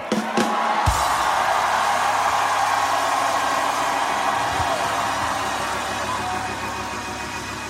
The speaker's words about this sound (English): Let me hear you roar.